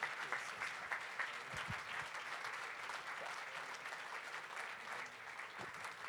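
Sustained audience applause, a dense steady patter of many hands clapping at an even loudness for several seconds, with no one speaking over it.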